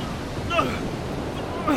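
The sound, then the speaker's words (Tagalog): Steady roaring wash of big, rough sea waves mixed with strong gusting wind, loud and continuous throughout, as people at sea struggle to reach the shore safely, with a couple of faint high tonal cries briefly rising over the noise. “Malakas na ang hangin! Malalaki ang mga alon!”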